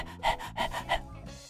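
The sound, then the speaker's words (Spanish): A person imitates a dog panting, as they do when feeling happy, with three quick, breathy huffs in a steady rhythm, fairly clear, then trailing off into quiet breath. “de tanto hablar de imitar a un perro, de que debe ser como un perro, de que los perros tienen actitudes positivas.”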